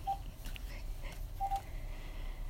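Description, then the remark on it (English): Two short, faint electronic beeps like phone keypad tones, spaced about a second apart, over a low background rumble with no one speaking. “I, I don't want my phone to go off while I'm doing this podcast.”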